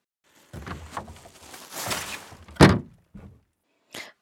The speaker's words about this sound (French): Bon, j'ai pas pu m'empêcher de mettre ce bruitage que j'ai trouvé sur le web, que j'ai trouvé très parlant, euh, de cette poubelle euh, qui est devenue finalement un automatisme.